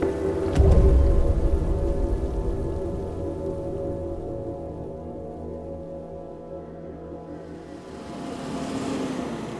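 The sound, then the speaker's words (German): Steady rain patters down throughout, with a deep rumbling thump near the start and a low, droning hum underneath; no one speaks. “Dass sie, wenn sie Stunden später den Club verlässt, nur noch wenige Minuten ausgelassen durch den Regen tanzen wird?”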